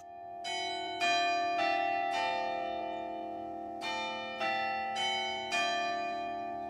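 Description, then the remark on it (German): Carillon bells of the town hall in Lerwick, which stands on the highest point of the town, ring out in a steady sequence of strikes, each bright metallic tone ringing on and overlapping the next, with a pause midway before the chimes resume, no voices present. “Das Stadthaus mit dem Glockenspiel steht auf dem höchsten Punkt von Lerwick.”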